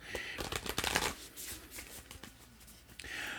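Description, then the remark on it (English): A deck of oracle cards being shuffled, a quick flurry of crisp riffling and papery slaps, then a softer sliding shuffle that trails off near the end. “So one more shuffle.”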